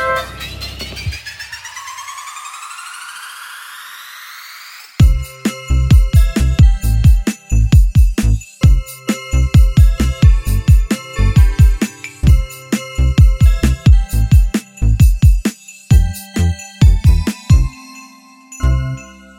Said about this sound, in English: Every time a bell rings, an angel gets its wings. And every time you hear the chime, a new podcast starts.